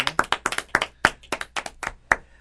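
A small group claps steadily, a run of sharp hand claps at a fairly even rhythm with no voices over it, a brief round of applause for a guest being introduced.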